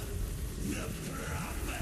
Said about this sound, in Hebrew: בוא'נה, עוד גשם, אחי. התחיל גשם.